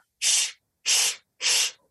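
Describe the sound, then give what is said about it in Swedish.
Three short, loud hissing bursts made by a voice imitating air escaping from an air mattress that breaks when someone lies on it, evenly spaced, each a breathy rush of air. No speech. “Ni vet när man lägger sig på en luftmadrass och så går den sönder och så ja. pyser luften ut.”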